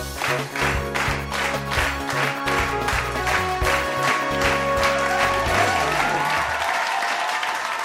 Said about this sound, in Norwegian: I dag dere, har vi med oss en helt spesiell gjest, som kanskje kan bidra til å kaste litt lys over temaet kunstig intelligens. Gi en stor applaus til den humanoide roboten Lise!